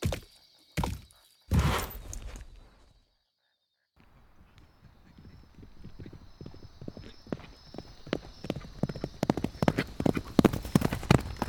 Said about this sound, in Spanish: Los ruidos del caballo están más cerca.